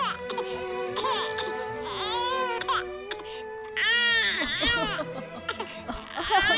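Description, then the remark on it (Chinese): A newborn baby boy cries loudly in long, high-pitched wails that rise and fall, broken by short gasping pauses, with several cries in a row. “一个男婴出现了！ 哇，这到底是什么呀？”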